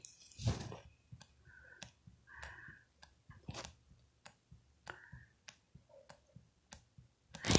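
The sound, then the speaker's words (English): Faint, steady clicking of a person's mechanical heart valve, sharp little ticks repeating about once every half second, quiet with no one talking, plus a couple of soft thuds. “But if you heard that for that five second interval, the clicking, that's my mechanical valve. I have a mechanical heart valve.”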